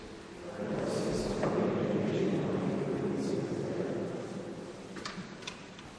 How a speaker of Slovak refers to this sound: Vlny.